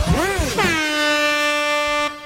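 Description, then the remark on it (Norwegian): A jingle: a loud, sustained air horn blast rings out for about two seconds after a brief warbling, pitch-bending lead-in, then cuts off abruptly. “Det var feil jingle, bare.”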